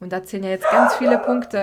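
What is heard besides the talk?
dog barking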